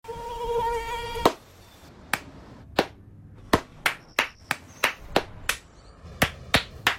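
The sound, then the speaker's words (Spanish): A high mosquito whine hums briefly, then a string of sharp hand claps rings out in an uneven rhythm, about a dozen slaps as someone tries to swat the insect. “No aplaudamos al mosquito, combatámoslo en serio.”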